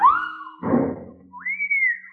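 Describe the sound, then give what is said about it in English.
A sharp whistling sound from a fast-flying ball: a sliding whistle, a brief rushing burst, then a second rising whistle that holds steady, all within about two seconds with no talking. “Then he must have pitched that blazing ball, cause there was a whistling sound.”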